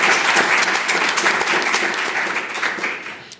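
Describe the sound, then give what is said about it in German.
An audience applauds after a reading from Jan Faktor's novel Trottel: a dense, steady wash of many hands clapping at once, loud and sustained for a few seconds before starting to taper off toward the end. “Applaus”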